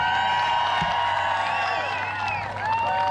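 A crowd cheers loudly and continuously for about three seconds, a dense wash of many overlapping voices with high whoops and shouts rising out of the roar.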